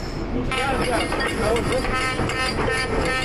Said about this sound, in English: Coming up on a two train.